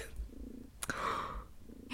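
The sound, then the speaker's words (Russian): A cat purring on someone's lap, nuzzled against the microphone, a soft, steady low rumble with a rhythmic pulse, interrupted by a brief rustling burst partway through. “А вы слышите, как она мурчит?”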